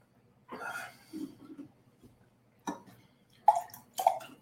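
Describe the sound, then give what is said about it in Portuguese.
Someone drinks a glass of water: a few soft gulps and swallows, then short sharp breaths and exhales after the sip, with no talking. “Vou tomar uma água aqui logo.”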